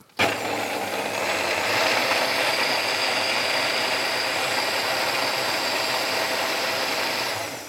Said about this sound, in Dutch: Nu blenden? En nu blenden. Oké, ik ga even lawaai maken